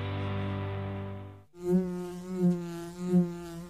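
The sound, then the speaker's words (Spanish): A bee buzzes loud in a honey advertisement, a steady droning hum that briefly cuts out, then returns at a different pitch, swelling in three rhythmic surges as if circling. “No se asuste, que no pica. Es la abeja de Andes Origen Miel rica.”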